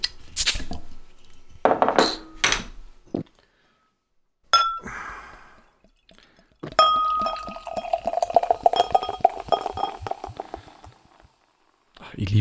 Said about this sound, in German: dieses Geräusch immer beim Einschenken. Mhm. Ganz hell. Voll sprudelig bei mir. Ja, bei mir sprudelt das auch schön, aber ein schöner Schaum ist bei mir drin im Glasl.